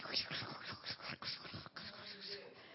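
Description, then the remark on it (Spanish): Hissing, crackling radio static fills a few seconds steadily, with faint, garbled voice-like fragments fluttering underneath as a weak signal fades in and out. “si sí, tú, tú, lo que oyes ahí es pura eh, este, estática, ¿eh?”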